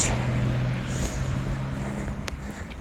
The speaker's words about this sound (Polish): właśnie sobie wpierdoliłem się na pasy. Tylko głośno mówiąc, przed jakimś samochodem. Golf, czwórka. 1.9